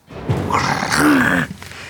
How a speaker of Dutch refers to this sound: Er gromt iets in de kast.